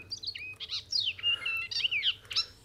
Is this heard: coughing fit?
no